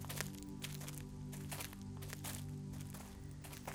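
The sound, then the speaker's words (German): Steady footsteps crunch and rustle through dry leaves on soft ground covered with colorful leaves, each step a crisp crackling burst at an even walking pace, with a low constant hum underneath and no voices. “Der Boden unter ihnen ist weich und mit farbigen, raschelnden Blättern ausgelegt.”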